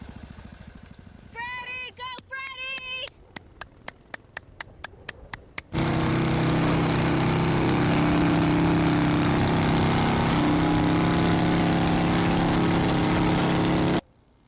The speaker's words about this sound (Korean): 얼른 오토바이에 오른 프레디는 자신만의 포인트를 정하고선 출발하죠